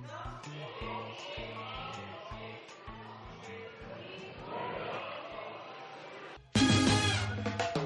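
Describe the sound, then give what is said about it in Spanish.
A large crowd of voices shouting and clamoring together in the Spanish parliament chamber before the result of a vote is announced, a steady uproar that suddenly swells into a louder, sharper outburst near the end. “Lo que escuchan a continuación son los gritos en el hemiciclo antes de conocerse el resultado de la votación.”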